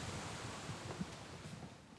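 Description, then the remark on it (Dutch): Steady wind blows outdoors, a broad rushing roar with low buffeting rumbles against the microphone, fairly loud and continuous with no voices. “Zullen we even naar binnen gaan, want hebben niet eh, te, veel last van de wind?”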